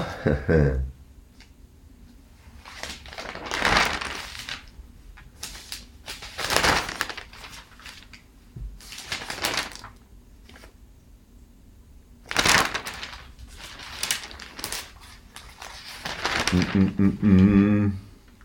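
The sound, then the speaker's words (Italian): Pages of the Il Messaggero newspaper rustle and crinkle in a series of irregular bursts as someone searches for page 2, with brief quiet gaps between handlings and a louder flurry of page-turning near the end. “Vabbè, comunque il tema, il tema è, non trovo la pagina del messaggero, ma il tema è, è risolto.”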